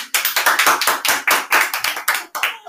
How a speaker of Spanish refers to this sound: Todo aplauden, me encanta. ¡Viva, viva!